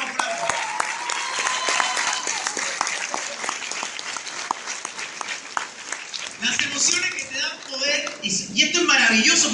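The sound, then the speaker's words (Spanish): A crowd bursts into loud, dense applause that fills the first several seconds, then the clapping thins out as a person starts talking over the last few seconds. “Ah, ah, oye, mira, le vamos a dar un fuerte aplauso porque nos está quedando ahí.”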